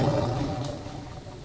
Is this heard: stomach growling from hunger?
yes